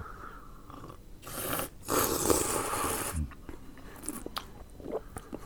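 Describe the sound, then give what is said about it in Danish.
An airy slurp of Taiwanese oolong tea drawn from a cup: a short burst, then a longer hissing sip lasting about a second, followed by quieter mouth sounds. “Og det gode er her, må du jo gerne slubre.”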